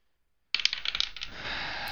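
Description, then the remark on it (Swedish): A twenty-sided die clatters onto a hard tabletop, a quick burst of sharp rattling clicks that tumbles and settles into a fading skitter, fairly loud, with no voices. “Kasta mig en 20-sidig tärning.”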